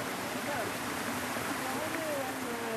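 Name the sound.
babbling mountain stream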